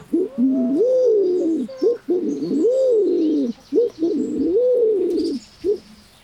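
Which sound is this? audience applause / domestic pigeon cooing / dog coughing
domestic pigeon cooing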